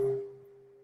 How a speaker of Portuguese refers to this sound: Imagine que esse som curativo, esse sino poderoso feita